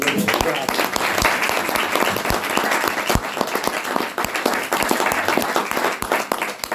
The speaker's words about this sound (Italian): E se possiamo gli facciamo un applauso e ricordo.